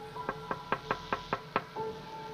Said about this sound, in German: Ein paar Minuten später hörte man Klopfen ans Fenster.